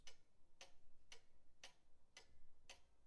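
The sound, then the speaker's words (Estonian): A large wall clock ticks steadily, six even, crisp ticks roughly half a second apart, heard quietly and on its own with no voices. “ta peatus suure seinakella juures, silitas seda mõtlikult ja ohkas.”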